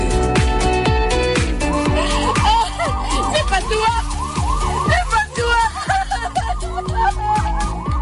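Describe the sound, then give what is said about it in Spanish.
Wailing sirens in Israel rise and fall repeatedly amid a dense, chaotic mix of sound with crying and bombs, sharp repeated tones and loud activity throughout, continuous. “Este es el sonido que domina en Israel desde el sábado por la mañana sirenas, llanto, bombas.”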